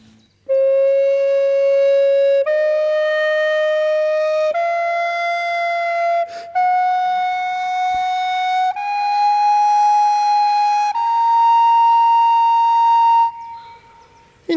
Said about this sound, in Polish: Trzy przykłady ornamentacji tej samej podstawowej melodii. Ona nie jest zbyt skomplikowana, bo jest to po prostu heksachord, czyli sześć dźwięków wznoszących się.